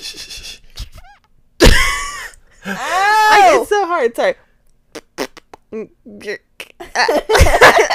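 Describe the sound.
A close, harsh cough bursts out, followed by strained, wheezy gasping and choking sounds as if something is caught in the throat, then a few clicks and a brief apology in speech.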